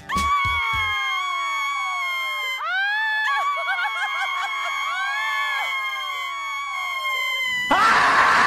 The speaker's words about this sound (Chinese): 等苏芒出现的时候，舒淇直接惊喜的尖叫起来。